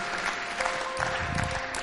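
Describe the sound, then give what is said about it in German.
A crowd applauds steadily for a person who has just made a decision, a dense, continuous patter of many hands clapping at an even level throughout, with no voices standing out. “Hey, lass uns der Person noch einen dicken Applaus geben.”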